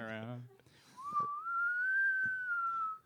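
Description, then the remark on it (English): A short vocal sound, then a steady whistle imitating a police siren, gliding slowly upward and easing back down over about two seconds. “Would you ever do the the, the police siren with a whistle?”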